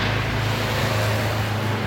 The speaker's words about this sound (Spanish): Estamos teniendo un helicóptero encima, no sé si lo notáis, pero nos vigilan. De nuevo, la policía nos está vigilando.